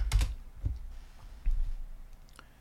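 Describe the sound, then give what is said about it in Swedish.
A few sharp mouse clicks and keyboard taps, spaced irregularly, with a quiet pause between bursts and no talking. “Nej, om inte far kan så får jag väl klicka ändå då.”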